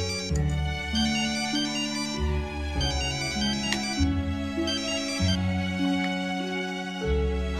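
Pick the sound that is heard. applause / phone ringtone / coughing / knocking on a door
phone ringtone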